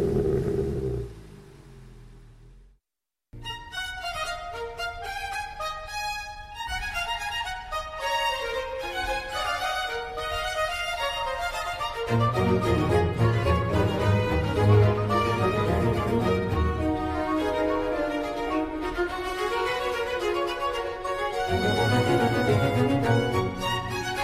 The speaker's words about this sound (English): Welcome back as we hear Handel's Messiah, the opening overture to that.